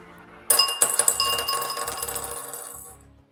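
Dice, including a twelve-sided die, clatter onto a hard table during a tabletop role-playing game: a sharp first hit, then a quick run of bright clicks and rattles that gradually slow and fade over about two and a half seconds, with no voices.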